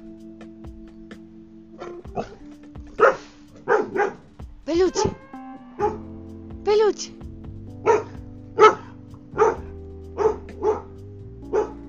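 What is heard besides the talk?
dog barking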